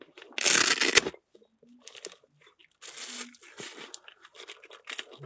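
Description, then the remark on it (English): Chocolate wrapper paper crinkling: a loud, sharp burst of crumpling at first, then a pause and a longer stretch of softer, uneven crackling and rustling. “chocolate paper.”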